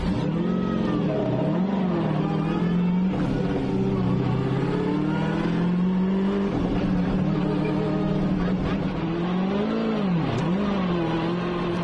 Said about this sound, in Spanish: es el momento de escuchar el buggy, así suena el buggy de Carlos Checa